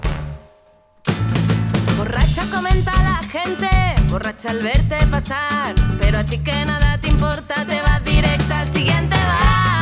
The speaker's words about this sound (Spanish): hoy quiero dedicarte esta canción de una banda española que ya no existe más